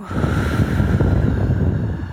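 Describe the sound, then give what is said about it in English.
A long, steady breath pushed out through the mouth after a deep breath in through the nose, during a relaxation breathing exercise: a continuous breathy rush lasting a couple of seconds with no talking over it. “So, deep breath and all the way out.”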